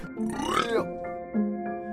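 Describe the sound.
A single loud burp with a rough, drawn-out tone, followed by quieter voiced murmurs.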